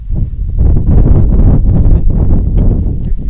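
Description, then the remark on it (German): Loud, continuous wind on a cold, windy day buffeting a microphone outdoors, a heavy low rumble with gusty surges that fill the whole stretch without pause. “Es ist kalt und windig und in diese Störgeräusche hinein mache ich meinen Bericht von Bordeaux 2017”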